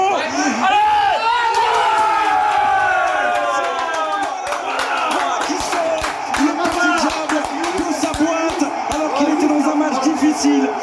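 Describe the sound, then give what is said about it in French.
A football stadium crowd roars loudly and steadily during a set piece, with rising shouts and whistles at first, then sharp claps scattered through the din. “vous avez entendu l'ambiance qui a accompagné ce coup de pied arrêté”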